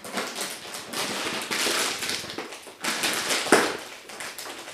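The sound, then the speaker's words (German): A crinkly plastic snack bag of Flips being handled and pulled open, a steady crackling rustle with a few sharper crunches and one louder tearing snap near the end, without talking. “Nicht wundern, es werden jetzt Chips aufgemacht.”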